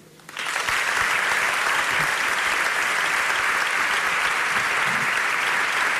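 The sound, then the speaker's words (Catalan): Loud audience applause for the Hoquei Olot hockey club and its president bursts in after a brief moment of quiet and continues steadily, a dense, even wash of many hands clapping with no pauses. “Un fort aplaudiment per l'hoquei Olot i el seu president”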